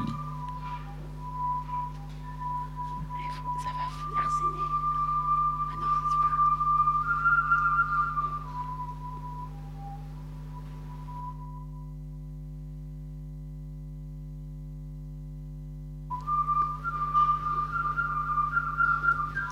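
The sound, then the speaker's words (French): A tube swung by a standing person gives off airy, fluting whistle tones that rise and fall, stop for several seconds, then return, over a steady low background hum. “une qui agite un tuyau qui fait un peu de bruit.”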